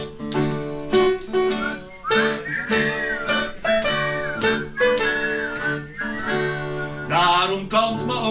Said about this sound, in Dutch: Dan gaan we weer fluiten.